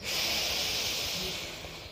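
A long, deep inhale through the nose during a guided tapping exercise, a steady airy hiss lasting about two seconds that gradually softens toward the end, with no talking.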